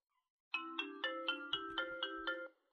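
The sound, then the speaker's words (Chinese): A phone ringtone heard while placing a call to friends plays a quick melodic tune of about eight bright, evenly spaced tones over a steady low hum, lasting around two seconds with no voices. “朋友们，我完全没有跟他们 real 节目，这是真的，我现场电联。”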